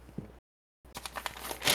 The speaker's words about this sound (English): the, the, the, incredibly loud paper flip over. oh, yeah. consult my notes here. Sorry, I wrote this shit down.